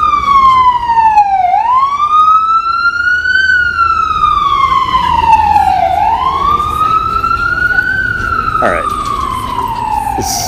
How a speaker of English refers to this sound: The siren is gonna yeah yeah, yeah he's coming at us. All right, we'll, we'll give it a second.